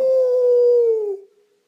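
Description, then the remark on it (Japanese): A short jingle for the Japanese radio show "Radio Manga", made of one sustained, howl-like note that holds steady for about a second, then fades out quickly into silence. No talking. “いや違う違う違うジングルの後やからこれこれジングルの”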